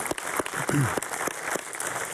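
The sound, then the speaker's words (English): A crowd at Cheyenne Hills claps steadily to welcome Frontier Days guests, with dense overlapping hand claps and a brief voice or cheer cutting through the applause partway in. “I think we should give a round of applause for all of our Frontier Days guests, if we can give them a nice welcome”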